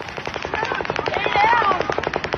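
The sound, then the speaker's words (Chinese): A third round of rapid automatic gunfire at a music festival, dozens of sharp cracks in a fast, steady rhythm for over two seconds, with faint wavering cries of surprise from the crowd rising beneath the shots. “当第三轮子弹倾泻而下，疑惑的嗡嗡声浪变成了惊讶的叫声，骚乱就此开始。”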